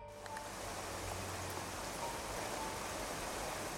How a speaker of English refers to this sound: I looked out the window, past the candle, to see nothing but a wall of pouring rain.